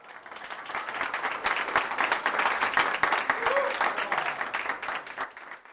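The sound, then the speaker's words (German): An audience applauds, many hands clapping in a dense, steady patter that swells quickly and holds for several seconds before tapering off at the end. “Zeit für ein bisschen Applaus.”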